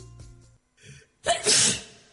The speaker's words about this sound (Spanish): Todas las personas cierran los ojos al estornudar.